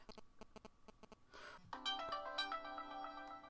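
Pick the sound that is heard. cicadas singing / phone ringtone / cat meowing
phone ringtone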